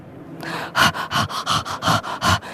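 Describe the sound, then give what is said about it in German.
A French bulldog, long slimy strands hanging from both sides of its face, pants and sniffs, with about eight quick, rhythmic breathy bursts following one another at a steady pace, fairly loud and with no talking. “Er hechelte und war geschmückt mit langen, schleimigen Fäden, die ihm rechts und links vom Gesicht herunterhingen.”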